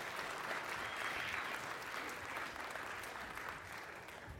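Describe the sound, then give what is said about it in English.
Sustained applause from an audience for students heading back to their seats, a dense steady clatter of many hands clapping at once, holding loud and even for several seconds with no talking over it. “Let's give them another round of applause as they head on back to their seats.”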